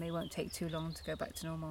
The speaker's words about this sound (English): We're sat, as I say, we're sat here by a lake. It's really lovely sounds here. I don't know if you can hear the birds chirping, and now the lawnmower's gone, that's, that's it's all better as well.